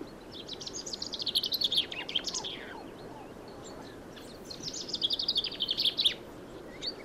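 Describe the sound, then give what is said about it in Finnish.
A flock of over 30 chaffinches, mostly brightly coloured males with one female and two bramblings, sing rough, unfinished phrases in two bursts of bright trilling chirps over a steady low outdoor rumble. “Kuten tarkkakorvaiset kuulijat huomaavat, nämä peipot eivät laula vielä ihan puhtain säkein.”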